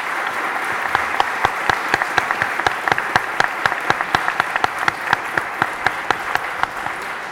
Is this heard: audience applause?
yes